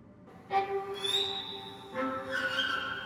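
A man whistles two sustained, tonal phrases, each a steady note with bright harmonics, pausing briefly between them. Moderately loud, with no talking.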